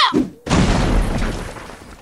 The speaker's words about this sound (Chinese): 好了，我先试试这根铁棒的威力，就砸这块大石头看看吧。哈！